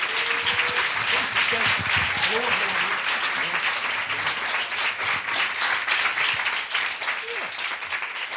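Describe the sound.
A crowd applauds a guest being welcomed on stage at the Puls festival, steadily for several seconds, a dense, even wash of many hands clapping at a constant loudness, with faint voices and cheers mixed underneath.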